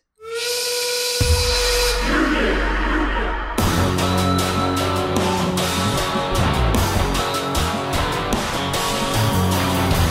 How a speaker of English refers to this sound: I'm not saying it's a great theme or even a good one, but I want you to keep in mind the opening of that song with the steam whistle and the group vocal, Union! Keep that in mind